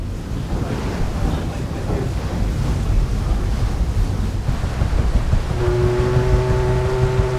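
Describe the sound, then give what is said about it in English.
Steady rush of wind and surging waves on the deck of the last ocean-going paddle steamer at sea, heading into the pier at Largs on the Ayrshire coast, with low engine rumble underneath; partway through, a sustained tonal hum or whistle rises and holds over the churning water. “We're just heading into the pier at Largs, a traditional seaside resort on the Ayrshire coast, about 30 miles from Glasgow by road,”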